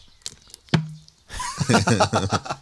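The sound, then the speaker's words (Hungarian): A few sharp plastic pops ring out, then a squeezed plastic soft-drink bottle is released and springs back with a loud, crackling crinkle in quick rough bursts, with no one talking. “És várja, még egy hang kell, ahogy elengeded a műanyag palackot.”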